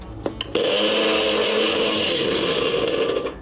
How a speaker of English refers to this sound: We're gonna use the blender, okay?